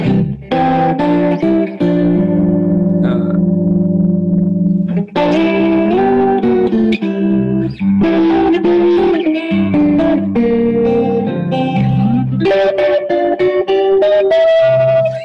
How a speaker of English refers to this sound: The tri chorus, man, I just instantly feel like ….